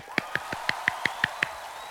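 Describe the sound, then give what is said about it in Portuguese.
Eight quick, evenly spaced hand claps in a steady rhythm, fairly soft, with no talking, ending abruptly and leaving a faint background hum. “Essa amiga merece palmas, tá?”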